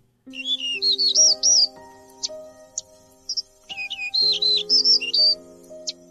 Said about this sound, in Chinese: 今天我们要认识一种名叫黄胸鹕的小鸟。十二月五号，世界自然保护联盟将它的评级从濒危升级为极危，这两个字意味着它快要灭绝了。